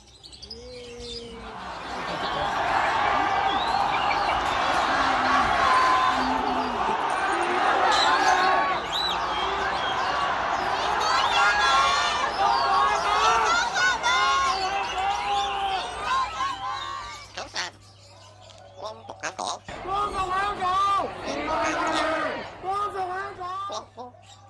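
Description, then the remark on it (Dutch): A busy, dense mix of many chirping and squawking birds, including various parrot species kept in cages, fills the space continuously with a murmur of people underneath, at a bird market in Hong Kong; the chatter thins briefly near the end. “Eh, waar je hier eigenlijk naar luistert is ehm, een opname uit, gewoon uit een vogelmarkt in Hongkong.”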